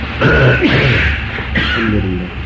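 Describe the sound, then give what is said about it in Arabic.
A loud, throaty sneeze bursts out, with a second noisy, voiced burst about a second later, each breaking into a rough vocal tail; no speech accompanies it. “رحمك الله”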